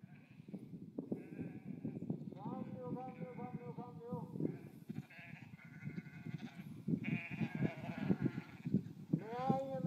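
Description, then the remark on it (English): A flock of sheep bleats repeatedly and overlapping, several loud wavering cries over a steady murmur of animal noise, responding to a shepherd whose voice calls among them. “Watch how well the sheep know the shepherd.”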